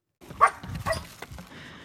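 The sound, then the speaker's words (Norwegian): A two-and-a-half-year-old springer spaniel on a leash whines and barks in a few short, excited bursts, fairly loud, with a strained, high-pitched edge between the yaps and no talking, pulling hard on the leash after seeing another dog. “Henry blir eh, mer og mer frustrert. Nå drar han fryktelig i båndet”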